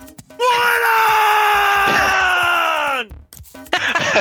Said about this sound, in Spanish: Así que ahora sí les voy a gritar, espero no reventarles por acá. ¡No se pierdan My Hero Academia! ¡Despertar de los héroes! ¿Escucharon, malditos nerds?